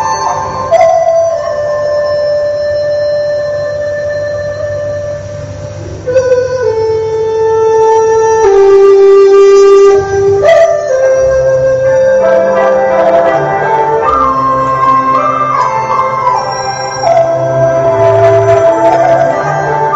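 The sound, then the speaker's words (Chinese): A Chinese bamboo flute plays a flowing, lyrical melody depicting the scenery of the Suzhou gardens of Jiangnan, with sustained, bright notes that glide between pitches, over a soft low accompaniment that continues steadily throughout, with no voices. “就是你听到这个曲子，感觉就是精巧的苏州园林，小桥流水，荷花映月这种感觉。”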